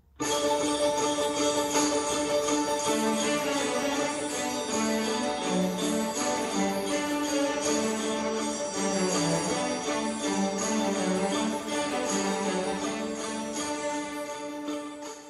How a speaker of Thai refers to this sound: มีเกี่ยวกับฤดูหนาวฤดูหนาวแล้วฟิลเนี่ยเขาก็จะเอาเสียงกระดิ่งเนี่ย มาใช้อ่าลองเปิดฟังกันหน่อยดีไหมฮะได้เดี๋ยวให้ฟังเป็นสั้นๆแล้วกันช่วงที่มีเสียงกระดิ่ง